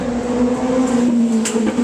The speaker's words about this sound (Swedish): Där kom en motorcykel till.